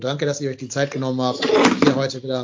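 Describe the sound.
A mobile phone falls off a table and hits the microphone: one loud, rattling knock about halfway through, while a man keeps talking over it.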